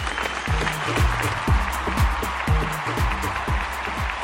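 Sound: stadium crowd applause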